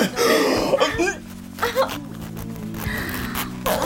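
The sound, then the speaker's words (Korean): The zipper on the back of a one-piece dress is pulled down in a single quick, raspy, smooth run without catching, fairly loud, with throaty vocal sounds and murmuring from a person mixed over it. “우리 저승사장님 원피스 지퍼 한두 번 내려본 솜씨가 아니야 그냥 한 번에 쫙 걸리지도 않고 그 스무스하게 너무 잘 먹히신다”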